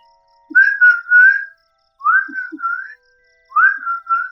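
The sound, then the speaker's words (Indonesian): Someone whistles an imitation of the kedasih cuckoo's call: three rising, sliding phrases, each followed by a steady tone, repeated with short pauses between. The whistling is clear, with no talking. “ya ini ngomongin kedasi. Oh, tapi punya burung kan?”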